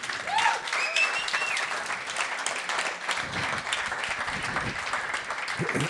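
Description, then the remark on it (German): A crowd claps steadily in dense, sustained applause for about six seconds, with a few faint whistles or cheers rising briefly near the start. “Können wir einen kleinen Applaus für den IBI haben?”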